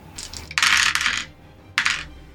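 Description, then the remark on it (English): Eight six-sided dice clatter and tumble across a hard tabletop: a brief rattle, then a loud extended clatter, and a final short burst of rolling. No voices. “I'll go ahead and roll the 8d6 just because I've already got the dice handy, unless you have the dice handy as well.”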